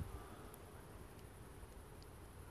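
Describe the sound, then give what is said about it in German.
Faint, steady chirring of crickets on a warm summer night hangs over a soft continuous background hiss, with a few slightly brighter high chirps standing out. There is no talking. “mit dem Rauschen des Windes, mit den Wipfeln, mit den Zirpen und Grillen von unsichtbaren Spielern.”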